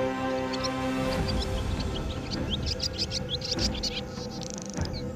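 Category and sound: bird, swallow chirping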